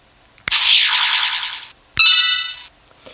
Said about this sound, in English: We are introducing the Super Mario Galaxy Japanese toy capsule sound drop effect. Here it is.